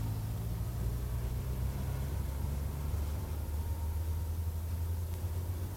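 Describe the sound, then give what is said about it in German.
A low, steady rumble of cars and engines outside, muffled, with a constant hiss and no distinct pass-bys standing out. No one speaks. “Draußen fangen schon die Autos an zu fahren.”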